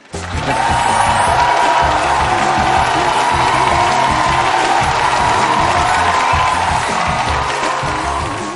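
A large studio audience at a TV broadcast claps and cheers loudly and continuously, with whoops and shouts rising over dense, sustained applause for several seconds.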